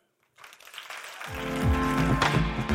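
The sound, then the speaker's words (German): An audience at a Speaker Slam event in Munich, January 2020, breaks into steady applause after a talk, swelling and building, while sustained low musical tones enter beneath the clapping partway through. “Applaus Vielen Dank fürs Zuhören.”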